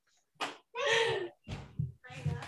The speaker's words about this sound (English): Okay, close the door too.